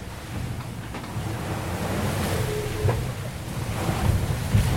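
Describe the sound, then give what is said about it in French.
Heavy ocean waves surge and crash around a boat crossing the waves, throwing up foam about 8 metres high and 10 metres wide that engulfs the boat; a continuous loud wash of surf and spray with wind buffeting the microphone, swelling louder toward the end. “Ça englobe le bateau en fait.”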